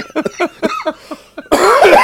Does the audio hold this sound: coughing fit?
yes